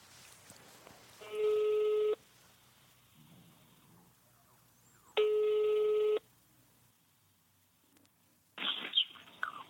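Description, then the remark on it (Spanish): A phone ringback tone plays over a speakerphone placed next to a microphone, two steady rings separated by a pause, followed by a click and a brief burst of noise as the call connects. “Anda, anda, llámale y, nada más pon el, teléfono al lado del micrófono, ponlo en speaker y ponlo al lado del, del micrófono, sí. Marcando.”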